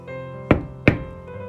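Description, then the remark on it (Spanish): Two firm knocks on a door, evenly spaced, sounding over a soft, steady tonal background with no talking. “¿Quién está a la puerta?”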